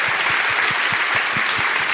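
An audience claps steadily, a dense wash of many hands with some individual claps standing out in a loose rhythm, fairly loud and sustained throughout without any talking.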